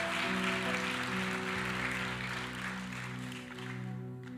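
An audience at a church service applauds after a prayer ends with 'Amen', a steady, dense wash of clapping for about four seconds while sustained keyboard chords hold underneath. The clapping thins slightly toward the end, and no one speaks.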